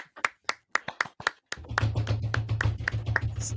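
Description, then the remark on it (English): A few people clap their hands in a quick, even rhythm of sharp, crisp claps as the winner of a competition is announced, which keep going over a low, steady humming drone. “We'll announce the winner. Everybody clap, clap.”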